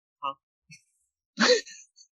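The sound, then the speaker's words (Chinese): A brief throaty noise, then one loud, harsh cough-like burst that trails off quickly, with a few faint vocal sounds around it and no speech. “正在咳嗽吗？”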